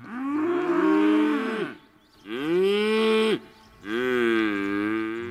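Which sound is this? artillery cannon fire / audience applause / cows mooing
cows mooing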